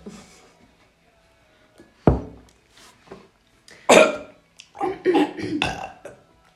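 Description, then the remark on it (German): Harsh, sputtering coughs after a swallow of Pfeffi peppermint liqueur goes down the windpipe: a sharp burst, a few smaller hacks, then a louder fit of rough, throaty coughing with gasping, slightly choked breaths. “Da ist ein bisschen was in die Luftröhre gekommen.”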